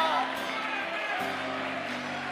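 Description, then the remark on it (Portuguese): An audience shouts hallelujah together, a loud, sustained wall of many voices over steady low musical tones that hold for a couple of seconds. “Alguém comigo aqui, grite aleluia!”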